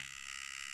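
A handheld skin extraction device with a slightly curved metal spatula, used for removing blackheads, runs in extraction mode after its button is pressed, giving a steady, high-pitched electric buzz at an even, fairly quiet level, with no voices.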